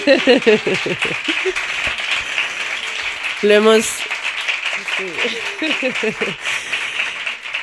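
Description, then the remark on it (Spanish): Steady applause from a crowd for the musicians fills the background throughout, with a man speaking and briefly laughing over it. “Y que recibe este aplauso, por favor, a todos los músicos.”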